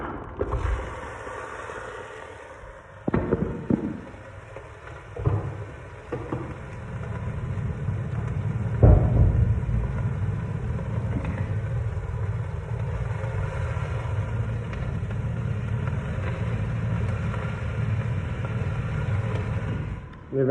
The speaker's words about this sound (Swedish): väldigt viktigt nu att vi låter köttfärsen bryna. De flesta sätt brukar, man eh, brukar låta köttfärsen vara när den har blivit grå, men det ska den inte vara.